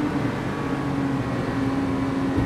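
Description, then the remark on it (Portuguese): A steady, continuous Italian car driving within the speed limits: low engine hum and road rumble with a faint sustained tone, holding an even loudness throughout with no voices. “vocês estão ouvindo o carro.”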